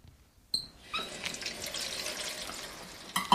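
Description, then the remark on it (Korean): Tap water runs steadily into a sink while dishes are washed, with a soft clink at the start, a continuous hiss of flowing water broken by a few light dish clatters near the end. “설거지 안 해?”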